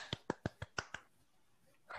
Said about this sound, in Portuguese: Parabéns, palmas.